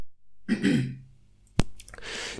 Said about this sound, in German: Sorry, ich muss mich mal kurz räuspern.